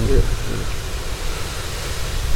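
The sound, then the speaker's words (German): Storm wind roars steadily through trees, blowing them sideways, a loud continuous rush with a heavy low rumble and a hissing upper edge that swells slightly toward the end. “Außerdem wird es jetzt eh langsam immer lauter hier mit dem Sturm.”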